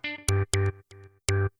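A sampled, effect-heavy guitar in a pop track plays about five short, punchy notes in a choppy rhythm, each with a bright attack and buzzing tone, loud, with no voices.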